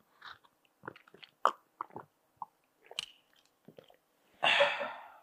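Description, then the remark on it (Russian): Wet mouth sounds of someone gulping water: a string of short, irregular swallows and slurps, then a longer breathy rush at the end. No talking. “Это у меня там где-то всосалась вода внутрь меня.”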